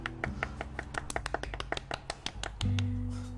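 A quick run of sharp hand claps, about a dozen and a half in a brisk, slightly uneven rhythm, applauding the audio editing engineer, over a low steady hum that swells louder as the clapping stops.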